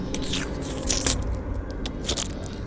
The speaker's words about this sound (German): Die kleinen Wesen laufen wieder zu auf die große Bestie, vereinen sich mit ihm in einem Konzert aus ekelhaften Visuals und grausamen, grauseligen, schleimigen Geräuschen.